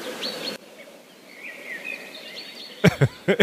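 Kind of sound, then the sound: bird, birds chirping outdoors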